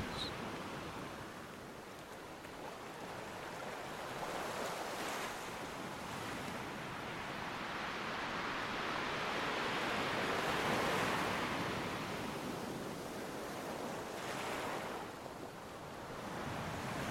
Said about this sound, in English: turning your focus to the sounds of the waves. you close your eyes and note the rhythms of each crash.